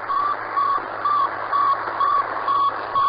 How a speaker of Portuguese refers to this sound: Era de fato pequena e bem leve. Era uma esfera de metal com quatro antenas no fundo e que fazia um bip no espaço. Eu acho que você já ouviu falar nesse bip. E vai ser esse bip que vocês vão escutar aqui agora, ó, olha.